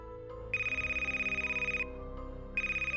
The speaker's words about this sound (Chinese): 就在这个时候，电话居然又响了起来。